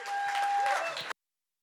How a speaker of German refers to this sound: Und ich würde euch einladen, einfach einen fetten Applaus zu geben, wenn er auf die Bühne kommt.